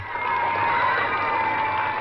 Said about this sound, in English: Vancouver's welcome home was huge, often overwhelming. Thousands of people covered in yellow ribbons and balloons cheered the wheelchair marathoner through the home stretch.